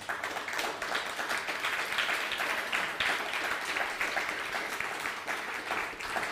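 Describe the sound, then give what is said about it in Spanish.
A crowd applauds steadily in praise of the Almighty, many hands clapping in a dense, even patter that holds at full strength for several seconds without pause or fade. “Dele un fuerte aplauso al Todopoderoso.”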